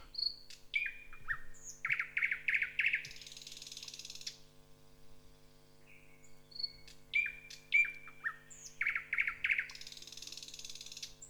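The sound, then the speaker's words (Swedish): A nightingale sings two loud phrases of choppy, jerky song: sharp whistles, rapid repeated notes and harsh buzzing rattles, separated by a brief pause, with a faint steady hum underneath. “Jag pratar om näktergal.”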